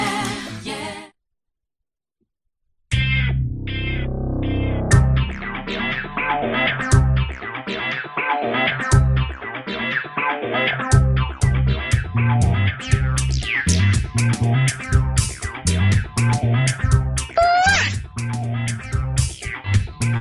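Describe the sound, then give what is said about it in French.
A brief burst of noise as a beer is popped open, then a couple of seconds of silence before a loud, dense music jingle with heavy distortion effects and busy, shifting melodic lines that run for about seventeen seconds. “un petit silence et puis je fais péter, fais péter la bière et ensuite le jingle.”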